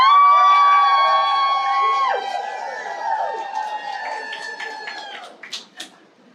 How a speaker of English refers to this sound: So I'm going to go from left to right. And as I go from left to right, let's hear you cheer and say, come with us.